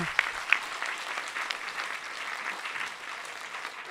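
Steady audience applause fills the whole four seconds, a dense crackle of many hands clapping at an even, moderate loudness, with a couple of sharper individual claps standing out early on.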